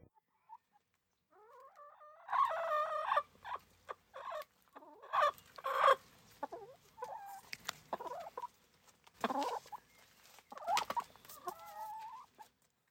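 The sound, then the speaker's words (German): Four hens in a garden cluck and murmur in irregular bursts, with a few louder squawky calls over soft scratching and rustling, and nobody speaking. “Ich lebe zusammen mit meinen vier Hennen”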